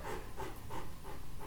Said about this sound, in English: It's just I have a Bernese mountain dog, and I often call him a breathing mountain dog because he breathes very, very loud.